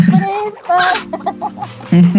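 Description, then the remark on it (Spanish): A pet parrot squawks and chatters in a quick series of harsh, raspy calls with short pauses between them, loud. “¿Alguno de ustedes, perdón, tienen un loro? Yo. Ah, eh, está ahí con vos, ¿no? Porque lo estoy escuchando.”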